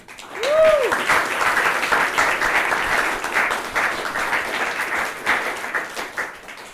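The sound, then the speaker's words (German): Steady applause from an audience welcoming a guest speaker, a senior researcher at the Institute for Literary Writing and Literary Studies in Hildesheim, a dense wash of many hands clapping that swells quickly and holds at a fairly loud level, with a brief rising whistle-like tone near the start. “Einen Applaus für Guido.”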